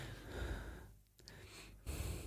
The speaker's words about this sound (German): Ich habe nicht gestöhnt, ich habe einfach nur laut geatmet, weil ich es ganz unerträglich finde, wenn Leute so laut atmen. Mach nochmal.